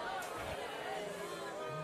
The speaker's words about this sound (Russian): А, толпа. Недовольна.